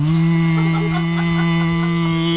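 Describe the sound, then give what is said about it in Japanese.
A voice hums a steady, low, droning buzz, held loud for a couple of seconds, imitating the low wingbeat hum of a huge swarm of flower chafer (kanabun) beetles. “うーんっていう、あの、羽音の、小さい低い羽音のすごい数のやつの”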